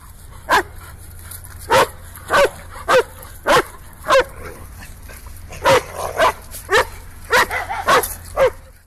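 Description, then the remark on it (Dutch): A very happy, excited dog barks repeatedly in short, sharp bursts, about a dozen yips and barks in an uneven, eager rhythm, fairly loud with a faint hum underneath. “Eh, die, is, eh, die is heel blij en die wil dat op die manier tonen.”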